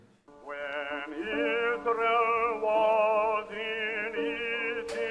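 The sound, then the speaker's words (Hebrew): An old recording of Harry T. Burleigh, Dvořák's Black student, singing the spiritual "When Israel was" unaccompanied, as he sang it for Dvořák: long, sustained notes with gentle vibrato, steady and fairly loud, with a thin, narrow-band tone typical of early recordings. “ברלי הוקלט, שר את זה.”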